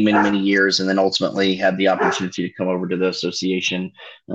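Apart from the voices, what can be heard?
dog barking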